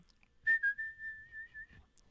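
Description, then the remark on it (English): A single high, pure flute note opens a piece of music and holds steady for over a second with a slight waver, then stops abruptly, clear and alone against a quiet background. “the music from the end of last week and the previous week just came in.”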